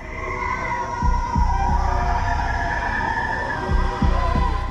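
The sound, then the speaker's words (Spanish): An unidentified underwater animal call, said to come from the same creature as the 'bloop' recorded by NOAA in 1997, in a longer recording: long, wavering tonal moans layered into a complex, eerie cry, over a deep rumbling background with a few low thumps. “Es el grito animal más complejo e intrincado que he oído. No teníamos ni idea de dónde provenía ese sonido.”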